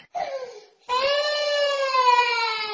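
A one-year-old child who has leukemia cries in two bursts: a short wail that trails off, a brief pause, then a longer, steady, high-pitched sustained cry that stays loud to the end.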